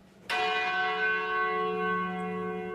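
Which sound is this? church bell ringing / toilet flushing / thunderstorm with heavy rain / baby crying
church bell ringing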